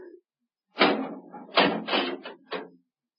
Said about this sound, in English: Open the door. Point, I beg pardon? The door, Professor. Very well.